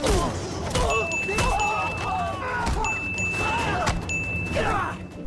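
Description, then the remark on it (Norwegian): Bright ding chimes ring out several times, marking abrupt cuts in a rapid montage of clipped snippets with voices, thumps and crashes, each cut briefly sustained by a clear tone. “Plingelydene du nettopp hørte, var klippet.”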